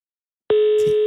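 After a moment of silence, a telephone ringing tone starts as someone redials a mobile number: a single steady, clear electronic beep that holds until the end, fairly loud, with no voices.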